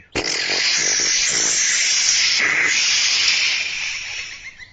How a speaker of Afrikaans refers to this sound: het net sy kiste vol water in die dam gesuig en is besig om die blomme in sy tuin nat te spuit Hy swaai sy slurpie heen en weer oor die blomme en blaas so hard as wat hy kan.